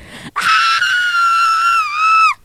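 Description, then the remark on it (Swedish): A person demonstrates a scream, letting out a single sustained, high-pitched scream lasting about two seconds, loud, holding steady before cutting off sharply; no talking. “Ehm, jag brukar göra så när jag kanske åker buss och så, och så, ja, och så skickar någon ett roligt mem, så skriver jag skrek och då gjorde jag följaktligen så här ah!”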